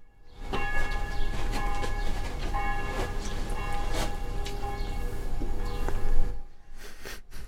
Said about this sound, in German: Und die Kirchenlocken läuten.